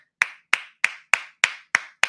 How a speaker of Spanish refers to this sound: Un aplauso para la agenda. Un aplauso para el gobierno mundial.